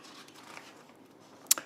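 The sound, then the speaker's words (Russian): Pages of a thick stack of paper are being leafed through: soft, faint rustling, then one sharp, crisp flick of a page near the end, with no talking. “И вот я вам принес Тут э, чертова куча страниц.”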